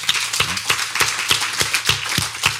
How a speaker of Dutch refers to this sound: En ik wil nog één keer een applaus. Dank voor zijn tijd.